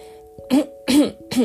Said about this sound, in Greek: Εννοείται θα βήχω. Εννοείται αυτό. Θα την ξαναπώ αυτή τη φράση γιατί έβηξα και θα ξαναβήξω.